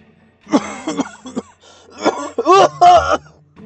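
A voice imitates dry coughing: a few short, harsh coughs, then a louder cluster of strained, throaty coughing sounds after a brief pause.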